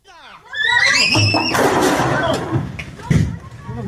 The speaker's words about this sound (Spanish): donde los sicarios llegan a prender fuego y se escucha a una mujer y a sus hijos, o dos niños, gritar asustados cuando ven que empieza el fuego y los corren, les dicen que se salgan de inmediato.